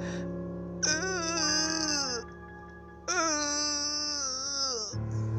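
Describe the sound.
A voice imitates a choked, strained attempt to scream, as when the speaker's voice got stuck trying to call a friend while unable to move, making two long, tight, wavering cries, each lasting over a second, fairly loud, with a short pause between them.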